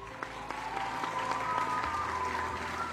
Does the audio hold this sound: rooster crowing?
no